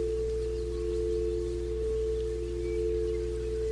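A quartz singing bowl rings with a steady, pure sustained tone, its bright hum holding evenly over a low drone with no voices, played for sound harmonization during a guided meditation.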